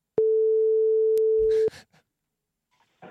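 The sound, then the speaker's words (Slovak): A single loud, steady telephone busy tone sounds for about a second and a half on a call that goes unanswered, then cuts off, followed by brief soft rustles and near silence. “Ale v dvíhaní telefónov by nemohli vyhrať šampionát.”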